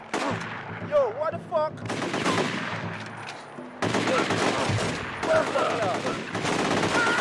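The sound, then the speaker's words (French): Rapid, continuous gunfire fired by the speaker fills the whole stretch, loud, with a brief lull near the middle before the volley resumes; some high whistling tones ride over the shots. “Ça faisait un moment que j'avais pas tiré, j'ai oublié.”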